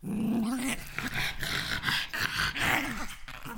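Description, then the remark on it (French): A French bulldog snorts and wheezes in loud, labored breaths, a steady run of raspy, congested huffs with a brief throaty whine at the start and no talking. “Un peu de la même manière qu'on s'est assuré de la pureté du sang des bulldogs français, puis aujourd'hui, écoutez-moi ces affaires-là respirer.”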